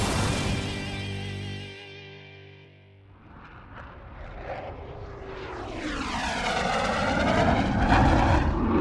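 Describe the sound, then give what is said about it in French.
An airplane engine from the Super Wings cartoon, with the planes setting off for Patagonia, drones steadily, dips briefly, then swells into a loud roar with sweeping, shifting pitch as the aircraft passes overhead. “Faites chauffer les moteurs tout le monde, direction la Patagonie”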